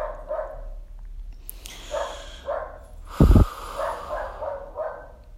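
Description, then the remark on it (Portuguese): A dog barks repeatedly, a string of short, evenly spaced barks over a low rumbling background, with one louder thump near the middle. “Acho que tem um cachorro que está concordando com isso aqui em algum lugar.”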